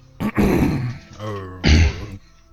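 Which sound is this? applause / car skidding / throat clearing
throat clearing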